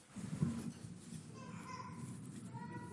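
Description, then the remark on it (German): A scattered group of audience members hums softly together in a humming test, a low, wavering drone that rises briefly and then holds steady at a faint level for a few seconds. “Und jeder, der sagt, ich bin gut darin, nach meiner Selbsteinschätzung geduldig zu warten, der summt jetzt.”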